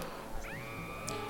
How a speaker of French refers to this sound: Enfin, faut savoir que le bruitage en fait, c'est un rugissement de lion passé en boucle.